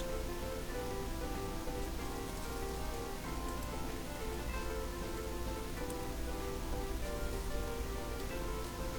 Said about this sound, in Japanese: ちょっと今、氷の水、ビニール袋がちょっとうるさいですけど、ツイキャススタートします。